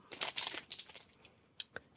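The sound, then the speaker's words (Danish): Crinkling of the wrapper of a cheap Eskimo-style ice cream: a burst of dense, bright crackling rustles for about a second, then a couple of short, sharp crinkles after a pause. No one speaks. “Øhm, og for vores vedkommende, så har vi taget is med. Ja. Og det er så... Øh, meget larmende og knitrende, og præcis som det skal være.”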